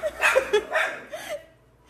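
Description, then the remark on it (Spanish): Several quick, strained dog barks and yelps fire off in an uneven burst, sounding like a brief fight between many loose dogs in front of a house, before trailing off. “Hay una pelea de perros, ahí intensa.”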